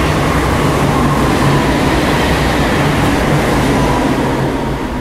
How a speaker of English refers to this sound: the uh, intercity train to Utrecht, trains are back to normal as well. So, I've been able to record these walks with relatively little noise from trains, but now they're back in full swing.